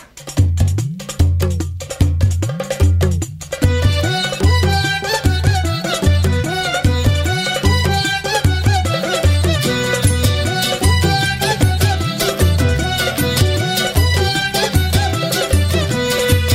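A lively frevo song plays loudly, opening with a few sharp percussive hits before the full band joins with a driving, steady bass pulse and bright clanking percussion like a cowbell.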